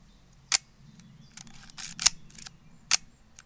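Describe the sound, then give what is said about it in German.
Crisp mechanical clicks of an M2 film camera's shutter firing, with the ratcheting whir of its advance lever being wound between shots, with no voices. “Also der fand das so spannend, dass die einen Spannhebel hat.”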